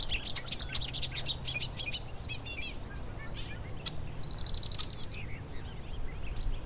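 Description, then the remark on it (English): Red-winged blackbird and bobolink calls ring out over a low, steady outdoor hum: bright chirps, quick bubbly trills and clear whistled notes, layered, with no one speaking. “And red-winged blackbird.”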